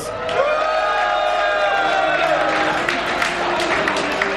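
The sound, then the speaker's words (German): A pub crowd in Berlin-Friedrichshain bursts into steady applause mixed with cheering, high whoops and shouts rising above dense clapping that holds at a fairly loud, even level throughout. “Bitte einen Applaus.”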